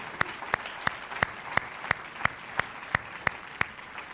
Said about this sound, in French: Oui, on peut applaudir l'équipe.